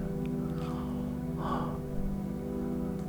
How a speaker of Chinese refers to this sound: 八十八个哈欠，八十九个哈欠，九十个哈欠，九十一个哈欠。